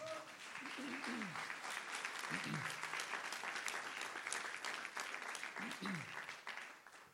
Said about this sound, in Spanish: Si usted lo cree, den un aplauso fuerte a él.